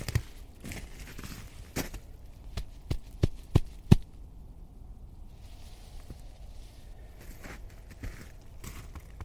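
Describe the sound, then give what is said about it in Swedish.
A hand pats a moss-covered rock slab in a short run of soft, dull slaps, a few sharper ones clustered together, followed by faint outdoor rustling and no talking. “Jag ska klappa lite på den får du höra hur det låter.”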